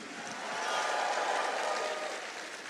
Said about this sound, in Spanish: Vamos, todos los valientes que tienen mentalidad de ganadores, den fuerte ese grito de júbilo.